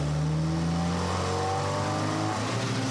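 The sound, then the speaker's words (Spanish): A motorcycle engine roars at high speed, revving steadily and loudly for a few seconds, its pitch rising slightly toward the end, with no voices, as it is ridden fast on the outskirts of a city. “Su mente viajaba tan rápido como la motocicleta que conducía Marcos por las afueras de la ciudad, rumbo a casa de Liz.”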